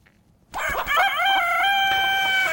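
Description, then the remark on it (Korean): A rooster crows loudly, one long drawn-out cock-a-doodle-doo that starts abruptly after a brief quiet moment and holds steady to the end. “예, 힘찬 닭 울음소리예요.”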